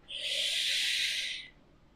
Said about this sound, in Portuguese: Aliás, desculpa o pigarrear aí, é, é porque, né? Não tem muito como fugir disso.